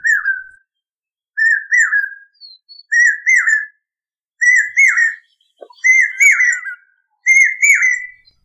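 A common hawk cuckoo, also called the brain fever bird, calls loudly, repeating a shrill three-note whistled phrase that sounds like "brain fever" six times at a steady pace, each phrase rising slightly in urgency, with no other sounds.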